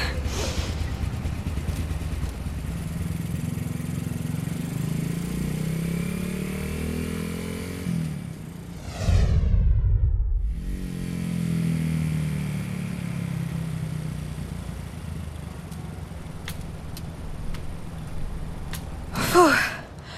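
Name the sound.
motorcycle engine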